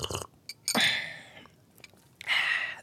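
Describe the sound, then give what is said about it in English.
Airy slurping of a hot Lipton drink: a short click, then a long breathy sip, a pause, and a second drawn-out sip, loud and hissy with no talking. “Okay, I have to take one more sip of this thing.”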